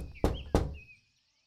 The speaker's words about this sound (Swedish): Men vargen gick raka vägen till mormors stuga och knackade på dörren.